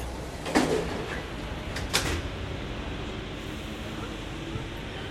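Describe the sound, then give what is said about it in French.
Sliding doors of a driverless metro train close with two sharp, clattering thuds about a second and a half apart, over a steady, loud rumble of train noise. No voices. “Le signal sonore retentit et les portes se fermèrent.”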